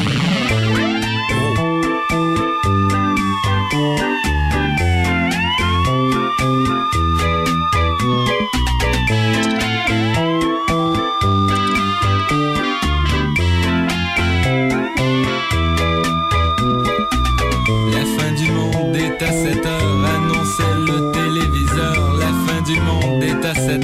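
A TV show theme song: loud, dense rock music with a driving beat and a repeating swooping, siren-like synth line that rises and falls every few seconds throughout.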